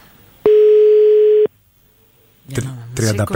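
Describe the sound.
A single loud, steady telephone ringback tone sounds for about a second while a call is placed from a landline, followed by a brief silence and then people starting to talk.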